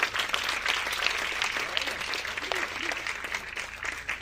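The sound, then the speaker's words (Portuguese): Steady audience applause welcomes a doctor onto the stage, filling the whole stretch with a dense patter of many hands clapping at even loudness, and a faint voice briefly calls out over it. “Então quero que vocês recebam com muita honra, com forte aplauso,”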